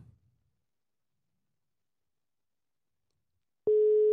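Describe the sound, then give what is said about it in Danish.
Near-silence holds for several seconds, then a loud, steady telephone ringing tone of an outgoing call starts abruptly and continues to the end, unanswered. No one speaks. “Det er faktisk ikke sikkert, at hun tager telefonen.”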